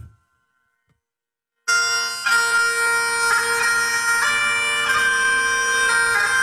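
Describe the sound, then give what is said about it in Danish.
After a brief silence, a bright, sustained melody of a traditional farewell song begins, moving through slow, steady note changes. It is loud and rich in harmonics, with no voices. “Skulle gammel ven skal jo ikke forgå.”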